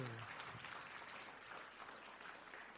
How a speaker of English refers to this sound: Now stand up and give God a hand right now. Everybody stand up. Yeah, let's do this.